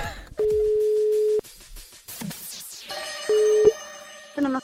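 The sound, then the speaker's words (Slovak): A telephone rings through the line in steady electronic tones: one long, loud beep, then a shorter one and a brief third, with faint rustling and clatter in between. “No, veď vypočujte si telefonát.”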